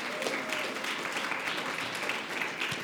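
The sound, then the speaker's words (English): An audience applauds steadily, many hands clapping in a dense, even wash of sound that holds at a moderate level from start to finish, with no voices standing out, thanking a group of people as they return to their seats. “And so what we want to do is let's thank these guys as they go to their seat.”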